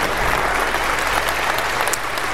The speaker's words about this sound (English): Let's just give some applause.